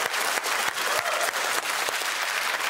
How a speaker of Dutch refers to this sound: Dames en heren, maak een zeer groot applaus voor onze kennismakers.